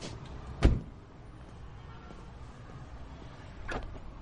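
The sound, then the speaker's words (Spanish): A car door shuts with one solid, heavy thump as a man gets out of his car and closes the door, then a low background rumble continues, with a softer second clunk near the end. No one speaks. “sale de su coche y cierra la puerta.”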